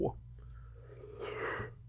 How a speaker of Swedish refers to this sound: förlåt jag gäspar, jag är så jävla trött.